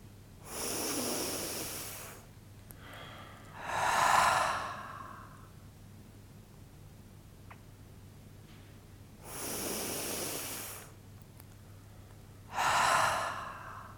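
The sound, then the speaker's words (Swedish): Two slow, deep breathing cycles in a guided breathing exercise, each an airy inhale followed by a longer, rushing exhale, with quiet pauses between them and no talking. “Och så andas vi in och ut några djupa andetag.”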